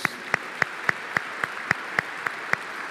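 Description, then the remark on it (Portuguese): An audience claps in unison for the Lord Jesus, about ten sharp, evenly spaced claps in a steady quick rhythm over a faint background hiss, with no talking. “Se você quer nisso, aplauda o Senhor Jesus.”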